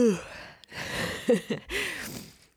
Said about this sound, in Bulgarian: Прозявка. Доста ми се спи, приятели.